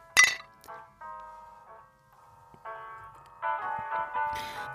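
Glasses of butterbeer clink together in a toast, a bright sharp strike followed by several ringing, tonal chimes that linger and overlap, clear with no talking.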